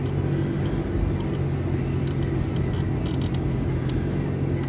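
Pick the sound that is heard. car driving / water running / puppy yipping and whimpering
car driving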